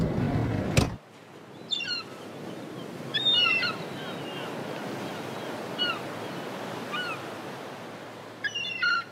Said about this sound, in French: Un soir, je me suis retrouvée seule, dehors, face à la mer, à regarder les vagues s'écraser sur la falaise, à ressentir le vent sur mes joues, dans mes cheveux, entre mes doigts, sans avoir rien d'autre à faire, ni nulle part où aller.